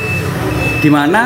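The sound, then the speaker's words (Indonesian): A thin, high-pitched electronic beep from a prepaid electricity meter holds steady in the background, fairly faint, while a person starts talking over it near the end. “ini suara token listrik gak sih”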